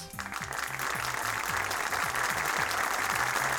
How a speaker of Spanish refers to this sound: Y este aplauso es para todos ustedes oyentes.